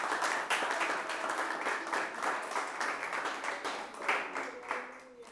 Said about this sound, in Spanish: ¿Cuántos le alaban? ¿Cuántos están aquí? Denle un aplauso al Rey. Aleluya.